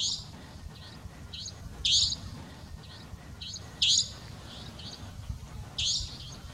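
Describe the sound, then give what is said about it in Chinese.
A savanna nightjar gives sharp, high, buzzy call notes about every two seconds, three loud ones with fainter echoing calls between, over a steady low background hiss and rumble, heard at night in Hainan, China. “我就是我在海南的时候听到一种叫林夜莺的呃鸟类，它的那个鸣叫声是很很有特点的。”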